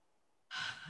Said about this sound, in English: And I always yawn when the energy is moving. so, I'm, something's happening already here.